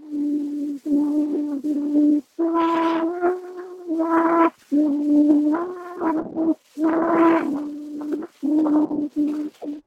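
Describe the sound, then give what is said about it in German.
A child's voice sings a French song in a slow, simple melody with long held notes and short phrases, on an old, somewhat noisy recording with brief pauses between lines. “Da singt offenbar ein Kind irgendein Lied.”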